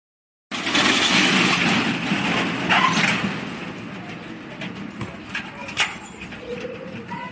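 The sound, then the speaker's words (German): The metal roller shutter of an Italian shop rattles loudly as it is pulled down for a few seconds, as at the start of Ferragosto in Italian cities, followed by quieter scraping and a series of sharp metallic clicks as it is locked with a key. “Der Rollladen aus Metall eines italienischen Geschäfts, der erst heruntergeladen und dann mit dem Schlüssel versperrt wird.”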